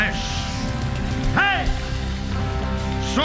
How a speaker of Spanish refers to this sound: Un aplauso